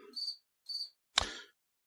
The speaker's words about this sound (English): Why, it's the bug, I mean, the crimson cicada phone. It appears once again.